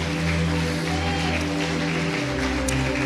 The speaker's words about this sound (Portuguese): Você pode agradecer ao Senhor aplaudindo a Ele. Aplauda ao Senhor por ele, porque Ele é digno realmente de toda adoração.